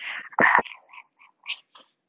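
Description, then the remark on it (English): A person imitates a dog, giving one loud, harsh bark followed by a string of softer, shorter yips, with no other talking. “Let me bark for them real quick.”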